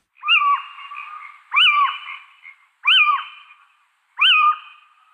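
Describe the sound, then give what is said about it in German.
A little owl gives four loud, evenly spaced calls, each a harsh rising-then-falling squawk with a trailing buzzy tail, repeating roughly every second and a half with short silences between. “Mit diesen Rufen oder dem Gesang fordert er mehr Wohnraum im Baum.”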